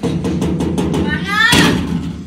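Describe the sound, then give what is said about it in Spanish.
A quick run of about seven evenly spaced, clear knocks on a door made by a pet parakeet, followed by the parakeet's squeaky, chattering vocal sound and a brief burst of noise. “También es, una, es un ave no sé si escucharon, que hay un periquito que tenemos ahí voy. que toca la puerta”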